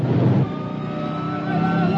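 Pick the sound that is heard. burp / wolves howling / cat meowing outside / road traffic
road traffic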